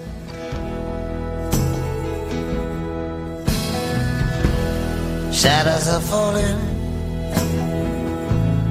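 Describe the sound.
A folk-rock song plays at steady volume, with strummed guitar chords, a sustained harmonic backing and a male voice singing over the band.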